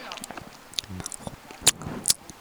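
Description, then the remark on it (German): Wet mouth noises of someone eating, with small clicks and chewing squelches and a couple of sharper gulping swallows near the end, fairly quiet against a low background. “Das Schlucken.”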